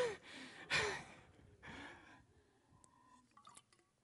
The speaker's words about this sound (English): I need a drink of water.